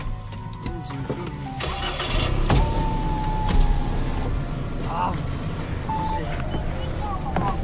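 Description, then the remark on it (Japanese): Inside a running car heading toward the station, a power window motor whines steadily for a couple of seconds as the window lowers, over a low engine rumble and muffled outside noise, with brief voices. “はい窓開けようか”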